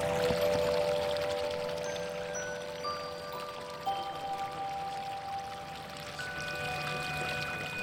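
Spring water bubbles and gurgles up out of the ground in a steady wash of trickling and splashing, with faint high tinkling notes drifting over it and no voices.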